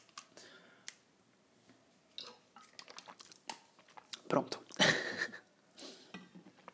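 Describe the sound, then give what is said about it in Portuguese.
A glass or bottle clinks and rustles as it is picked up, followed by a short sip and a swallow of water; a voice speaks briefly around it. “Aí eu preciso de água, gente. Espera, um minuto.”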